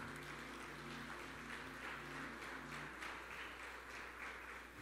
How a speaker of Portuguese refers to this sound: A igreja de pé, aplaudindo o nome do Senhor Jesus.